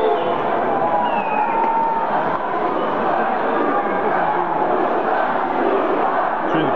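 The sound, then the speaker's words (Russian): At a wrestling show, a large arena crowd chants "USA," a dense, loud roar of many voices that holds steady for the whole stretch without a break. “USA кричат.”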